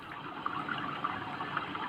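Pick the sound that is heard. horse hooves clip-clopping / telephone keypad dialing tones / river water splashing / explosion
river water splashing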